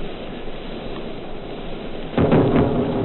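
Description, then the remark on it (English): Anti-aircraft shell bursts, heard in one of Edward R. Murrow's wartime radio broadcasts, go off nearby, a couple of hard, rumbling booms arriving close together after a stretch of steady crackling hiss, loud enough to swell over the background noise. “Now you'll hear two bursts a little nearer in a moment.”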